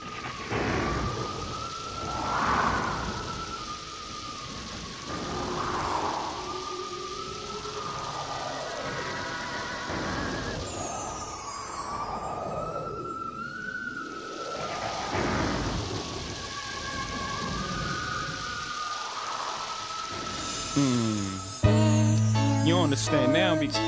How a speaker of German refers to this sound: Ähm, generell ist das Album ziemlich düster. Hört euch mal zum Beispiel diesen Beat hier an.